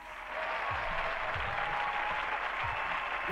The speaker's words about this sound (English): I was just letting the applause right out.